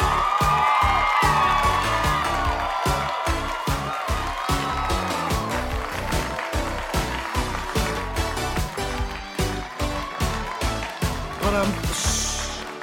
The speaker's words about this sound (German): Ja, ich freue mich sehr, ähm, das Publikum flippt ja völlig aus hier im virtuellen Studio.